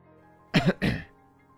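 Two short, throaty coughs in quick succession, the second slightly longer, as a man coughs a few times before slowly beginning to speak; near silence before and after and no talking.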